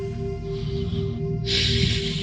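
Audible breathing through both nostrils during a breathing exercise: a softer inhale, a brief pause, then a fuller, louder airy exhale, over a faint steady hum with no talking.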